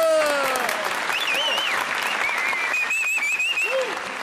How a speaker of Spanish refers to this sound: Increíble. de verdad, ese aplauso fuerte para el maestro. Otra vez aplauso. ¡Bravo!